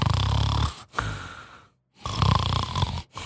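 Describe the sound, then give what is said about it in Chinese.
Loud, rumbling snores from a person asleep in a living room after drinking too much, with a low, rattling vibration, repeating in long breaths separated by brief pauses, with no speech over them. “喝多之后呢，躺在这个客厅里边睡觉啊，这没一会儿啊，呼噜噜的打起了呼噜啊。”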